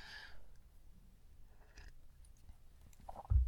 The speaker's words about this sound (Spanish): Pausa para trago de café.